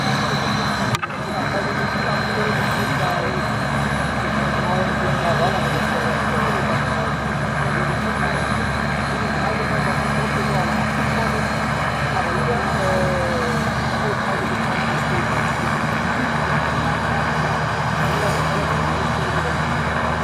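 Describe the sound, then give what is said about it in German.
A helicopter standing ready for observation sightseeing flights runs its engine and rotor steadily and loudly, a continuous droning roar with a low throbbing hum that holds constant for the whole stretch. “Und der Hubschrauber stand bereit für Beobachtungen.”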